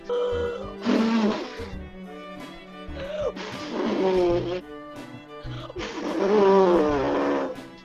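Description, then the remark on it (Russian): A voice imitates a wolf forcefully huffing and blowing on a straw hut, three loud, growling gusts of breath with roaring undertones, separated by brief pauses. “Волк увидел соломенную хижину, бежал к ней и начал изо всех сил дуть на хижину.”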